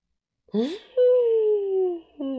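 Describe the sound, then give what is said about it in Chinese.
A voice imitates a strong gust of wind: a quick rising whoop, then a long, steady moaning tone that slowly falls in pitch, a short break, and a final rising howl. “一阵大风忽然吹过，把这些黄色、蓝色的小旗子吹跑了。”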